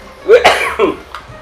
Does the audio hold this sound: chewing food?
no